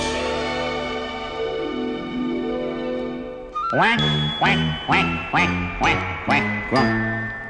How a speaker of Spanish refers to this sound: allá en la laguna cantaban los patos